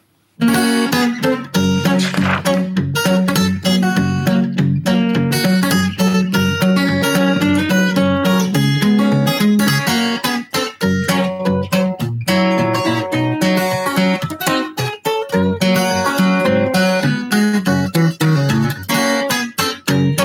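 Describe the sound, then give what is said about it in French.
An acoustic guitar plays a short melodic passage taken from the player's new album, with steady plucked and strummed notes ringing full, continuing for about twenty seconds with no voices. “je vais pas chanter quelque chose, mais je vais juste faire un tout petit truc euh, à la guitare, tiré justement de, de, cet album.”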